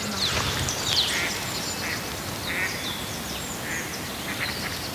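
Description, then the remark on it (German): Ducks quack repeatedly in short nasal bursts, scattered across the scene over a steady outdoor background hiss, with faint bird chirps mixed in. The sound is heard in a forest. “man hört sie zwitschern, man hört Enten.”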